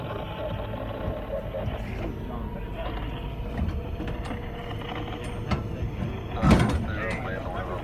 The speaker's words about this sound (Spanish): rompieron los candados y abrieron la puerta del contenedor.